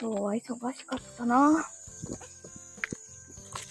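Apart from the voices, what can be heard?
cicadas buzzing outdoors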